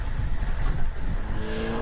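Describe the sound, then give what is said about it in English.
A car engine rumbles steadily and fairly loudly, with a deep low drone that rises into a faint whining tone near the end, as if the car is revving or accelerating. No voices. “Number 12 was a car with four wheels.”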